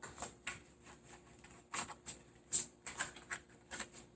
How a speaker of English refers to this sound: And I'm just going to pull one card, just one card. So, as I'm shuffling through this deck,